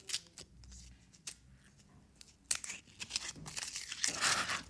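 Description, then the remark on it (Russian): A bottle being opened slowly by a man right next to the microphone for ASMR content: crisp crinkling and tearing bursts, scattered at first, then growing denser and louder toward the end, with no talking. “По традиции мы даем бутылку открыть мужчине Конечно.”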